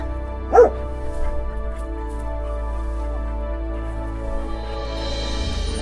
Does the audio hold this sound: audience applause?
no